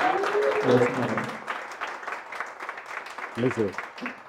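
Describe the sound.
A crowd applauds a hotel honored as winner of the best Fanesca 2022 among all hotels in Quito. The clapping is a dense, crackling patter of many hands that carries on throughout, with a few voices briefly calling out over the clapping.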